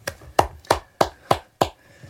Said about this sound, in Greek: Χειροκροτώ τον εαυτό μου.